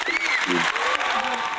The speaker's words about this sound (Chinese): 来，掌声欢迎。